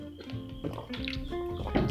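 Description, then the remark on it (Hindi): Someone drinks water, with a few wet gulps and swallowing sounds in quick succession. No one speaks. “let me drink some water”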